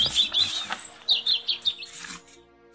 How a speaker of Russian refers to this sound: По утрам за окном пели птички и будили маму и Аню.